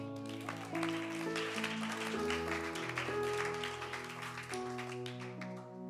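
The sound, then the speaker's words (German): An audience claps steadily for two worship leaders at a worship service, a dense patter of many hands layered over sustained, loud keyboard chords that shift every second or so. “Ihr dürft ihnen einen Applaus geben.”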